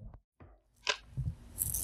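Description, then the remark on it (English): Quiet shuffling of a deck of cards: a few soft papery slaps and brushes, then a brief crisp rustle of cards sliding together, with no voices. “We are definitely all over the place because shuffling these cards, I got so many different energies coming out at me.”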